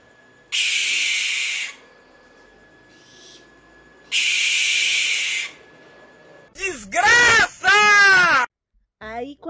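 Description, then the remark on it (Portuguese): Two loud, harsh barn owl screeches, each a raspy hiss lasting over a second, separated by a short pause; a person then starts speaking. “E ela tem um grito, assim, bem feio, muito feio. É como se fosse uma pessoa realmente gritando.”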